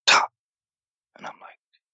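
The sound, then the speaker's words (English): A voice mimics M4 rifle gunfire with three clipped mouth sounds: one sharp, loud burst, a pause, then two quicker, softer pops close together, heard alone. “I'm like, that's that's gunfire. That's our that's our gunfire. Um, you can't you can't really mistake the sound of a, of an M4, you know.”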